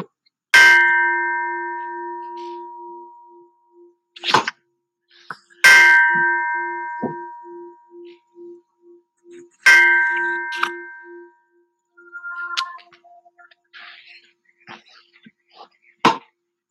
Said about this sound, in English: Okay, so we're going to start the session with the Tibetan bell.